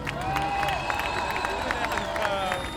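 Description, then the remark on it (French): A large crowd cheers and applauds steadily for a rapper, with dense clapping, shouts and a few whistles blending into a loud, continuous roar throughout. “Donc du bruit pour …, s'il vous plaît.”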